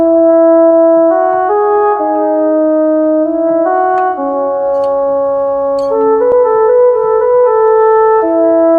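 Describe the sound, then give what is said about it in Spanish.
A French horn plays a slow, legato arrangement for a symphonic version of a song, its warm sustained notes moving stepwise over a held lower line, loud with no talking. “Para agregar un elemento más a la versión sinfónica, dije hay que agregar un instrumento de viento y bueno, este es el arreglito que tira la trompa.”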